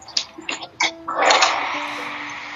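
A few sharp, separate taps open, then heavy rain swells into a steady, dense hiss that carries on loudly to the end, with no one speaking.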